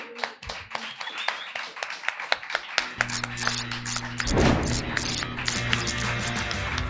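A round of applause welcoming the segment "La zorra que todo lo sabe", with brisk, steady hand claps throughout; about halfway through, a low sustained musical tone swells in beneath the clapping.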